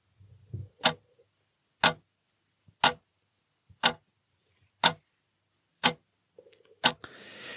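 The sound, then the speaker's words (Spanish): A clock ticks steadily, about once per second, seven sharp, crisp ticks standing alone against near silence, with a faint low rumble at the start and a hiss creeping in at the end. “creo que en todo este capítulo no hemos oído el sonido habitual del tic-tac.”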